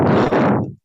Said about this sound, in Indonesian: Eh, napas ya napas lo kedengeran iya, ya